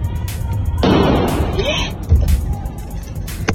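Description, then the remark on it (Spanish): Loud bursts that sound like gunshots ring out amid a noisy, crowded setting at the parking area of the Torre Mítica shopping plaza in Mexico City on Monday, 21 November, during the Buen Fin. A sharp crack is followed by a heavy bang a second later, with indistinct voices in the background. “En videos de capitalinos que acudieron a la plaza, se escucha lo que parece ser detonaciones de arma de fuego.”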